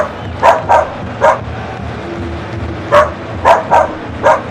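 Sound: dogs barking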